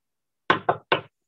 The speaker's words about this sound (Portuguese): Diante do quarto ao lado, comecei a bater na porta, meio que sem saber o que esperar, mas ninguém respondeu.